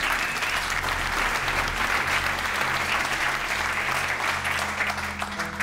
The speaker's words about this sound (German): Ich kann Sie nur beglückwünschen, dass Sie heute Abend hier sind und tollen Speakern zu unterschiedlichen Themen in Bereichen lauschen. Geben Sie sich selbst einen kräftigen Applaus an dieser Stelle vielleicht.